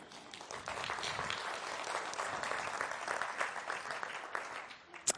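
Steady applause from a crowd, a dense wash of many hands clapping at an even level for several seconds before tapering slightly at the end.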